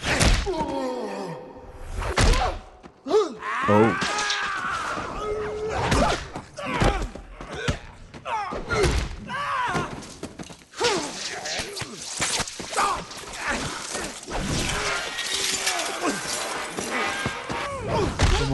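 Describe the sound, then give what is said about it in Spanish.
Repeated heavy metal blows clang and ring out in a loud, chaotic flurry, mixed with thuds, swishing whooshes and crashing debris throughout. “metal sonando.”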